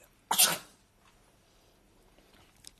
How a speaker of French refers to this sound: À tes souhaits, tonton.